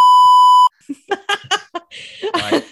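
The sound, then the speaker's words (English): A loud, steady censor beep holds one flat tone for under a second, then cuts off abruptly as people burst into laughter. “it's fairly obvious when you go back for all the beeps when you're talking about fucking stinking of onions could, and stuff.”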